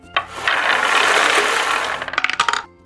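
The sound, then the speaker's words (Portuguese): A ball draw wheel spins with a dense, rapid run of ratcheting clicks that slows into a few distinct, spaced clicks as it comes to rest, fairly loud, with no talking. “Vamos, vamos girar aqui? Girar a bolinha?”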